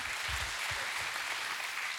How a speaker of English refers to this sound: Yeah, you can clap for her. She earned that one.